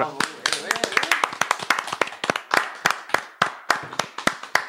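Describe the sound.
A small group claps steadily for several seconds, sharp overlapping hand claps forming a brisk, uneven rhythm, with some voices underneath.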